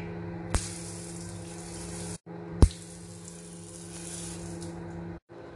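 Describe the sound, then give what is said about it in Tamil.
A handheld bidet spray hose beside a toilet, used for washing, gushes water in two steady bursts, each starting with a sharp click, with a short pause between them. The hiss is loud, and nobody speaks. “closet பக்கத்துலேயே இன்னும் ஒரு குட்டி டேப் இருக்கும் குட்டி ஷவர் அப்படின்னு நினச்சிடாதுங்க அது குளிக்கிறதுக்கு இல்லை கழுவுறதுக்கு அதை நம்ம அந்த சவுண்டை கேளுங்க”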